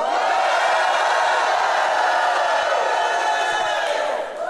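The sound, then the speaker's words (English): A large standing audience cheers and shouts in answer to a call for IMI members, a steady, loud roar for several seconds, many voices blending into a dense wall of yelling and whooping that barely dips before trailing off at the end. “How many are IMI? Let me hear your voice.”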